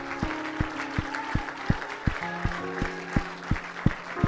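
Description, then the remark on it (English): An audience claps hands together in praise in a steady rhythm, about three claps per second, with a held musical tone and voices underneath. “Let's clap our hands again and praise.”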